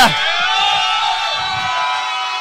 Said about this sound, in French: Et la foule jubile!